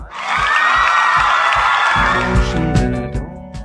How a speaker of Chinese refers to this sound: 所以，掌声鼓励一下我们自己。